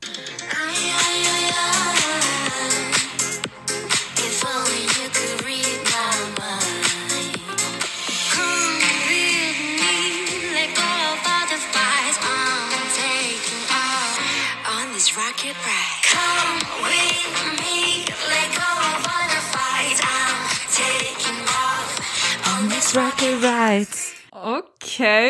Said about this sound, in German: Das ist wieder so ein Song, wenn du ihn mir spielen würdest. Ich würde nicht auf die Idee gekommen, dass es ein K-Pop-Song ist. Ja, voll. Der hat voll. so einen ganz, ganz anderen Vibe.